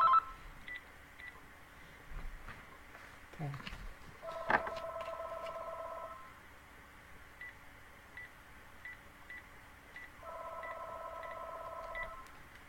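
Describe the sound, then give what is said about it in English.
An electronic telephone ring sounds in two steady, multi-toned bursts several seconds apart, clear, with a faint click before the first and a single brief spoken word as the call is answered. “Uh, hang on, I'm going to take this because it'll keep ringing.”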